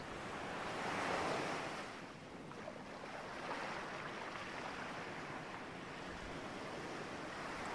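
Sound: ocean waves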